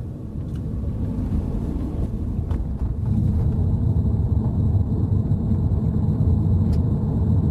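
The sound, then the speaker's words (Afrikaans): A steady, deep rumble of tyres rolling on the road, heard inside a quiet electric car cabin on the drive to work, constant throughout with a faint high whine above it and no one speaking. “Al wat ek hoor op pad werk toe is die bande se geruis en 'n kinderstoel wat agter 'n bietjie lawaai maak.”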